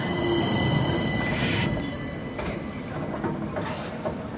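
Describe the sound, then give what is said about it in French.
An ultramodern blue and yellow tram-train, inaugurated in 2021, rolls steadily along the rails between Szeged and Hódmezővásárhely in southern Hungary, a continuous rumble with faint metallic whining tones and occasional brief hissing bursts, no voices present. “c'est un tramway ultramoderne.”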